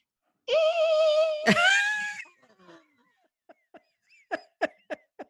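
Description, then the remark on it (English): A voice mimics a home ice machine in San Antonio clogged by hard water: a strained, warbling groan lasting a couple of seconds, then a short pause and a string of quick clicking pops that grow louder. “and so i knew last night i could always like you can kind of it's always running in the background and you can kind of hear it but it starts doing this”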